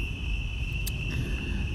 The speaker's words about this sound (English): And yes, yes, we are streaming live outside. As long as it's warm outside, we will be out here. And if you don't, if you, you know, hopefully you don't mind the crickets. It's kind of soothing if you ask me, but I digress.